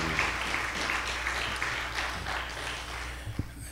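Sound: audience hand clapping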